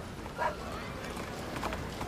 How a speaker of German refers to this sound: Hörst die Hufe der Pferde an den vorbeikommenden Kutschen.